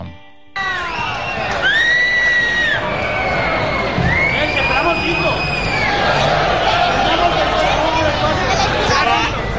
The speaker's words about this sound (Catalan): S'ha acabat el partit, xiulada al nou estadi.